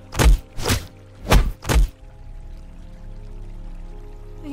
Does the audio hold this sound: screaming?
no